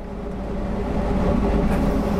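A steady, heavy rumble of a train in motion heard from inside the locomotive cab in the Czech Republic, with a constant low drone and faint rattling, loud, no voices.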